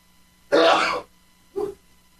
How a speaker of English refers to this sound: Wait a minute, I'm going to sneeze.